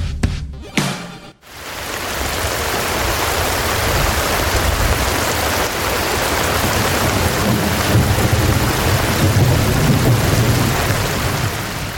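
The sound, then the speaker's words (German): A rain sound effect: steady, heavy rain hisses continuously, with deep rolling rumbles of thunder underneath, after a brief jumble of other sound in the opening second. No voices. “Das war natürlich ein Sound äh, von Regen.”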